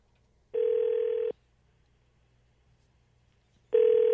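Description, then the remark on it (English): A phone line ringing out as the John J. Rich Show places a call: two steady electronic ring tones, each just under a second long, separated by a long silent pause, with no voices. “Let it, let us get him on the phone and set him up and explain to him what's going on, and then we will give you sixty seconds.”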